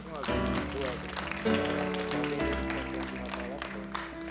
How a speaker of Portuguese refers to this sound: Glória a Deus. Você pode aplaudir de novo ao Senhor.